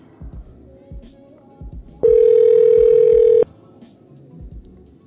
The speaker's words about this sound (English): I'm going to call him one more time because he always picks up.